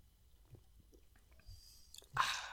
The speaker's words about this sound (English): First, let's crack open, my friend. Cheers to you, sir. Cheers. First little sip.